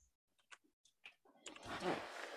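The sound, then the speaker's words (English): A few faint clicks and taps, then a loud, sustained scraping squeal and rush of noise as a window is shut. “That's just me closing the window, and it makes oh, um, right.”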